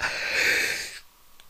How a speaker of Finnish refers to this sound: anteeksi, kello on taas suhteellisen paljon, on pitkä päivä takana, mä täällä haukottelen, minä isosti pahoittelen.